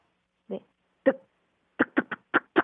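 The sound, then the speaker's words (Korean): A voice imitates a washing machine with a heavily tangled load of laundry (the whole family's laundry, including the baby's) thumping around: two spaced, grunting thuds, then a quick rhythmic run of about six bursts, fairly loud with no other sound. “아 세탁기에 예 빨래 엄청 엉킨 소리요.”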